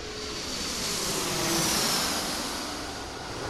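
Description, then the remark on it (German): A steady, broad roar of an airplane landing at Frankfurt Airport, swelling to a peak midway and then easing off, with a faint high engine whine on top and no voices. “An einem normalen Tag landen am Frankfurter Flughafen über 1300 Flugzeuge.”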